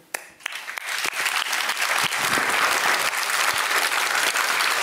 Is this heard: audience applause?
yes